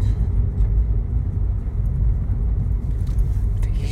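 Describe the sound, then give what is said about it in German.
Steady low rumble of a car driving on a country road near Dülmen, having just turned onto the road to the Wisbeck chapel; constant road and engine noise with some faint rattling, no talking heard. “Wir äh, haben gerade gedreht und sind ähm, da reingefahren, wo es zur Kapelle Wisbeck geht.”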